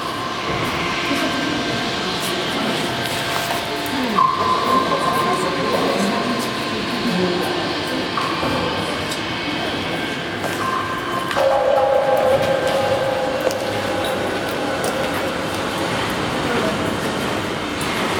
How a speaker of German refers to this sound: Also habe ich für euch eine Tonaufnahme gemacht von dem Wasserbeseng, dass ihr mal hört, wie das tropft und rauscht. Und das hören wir uns jetzt mal an.